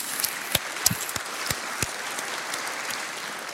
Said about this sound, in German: Ich glaube, jetzt ist erstmal nötig, dass wir unserem Jesus einen Applaus geben.